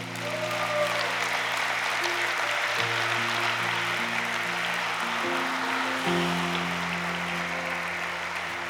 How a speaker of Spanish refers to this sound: ¿Cuántos le pueden dar un aplauso al Señor hoy?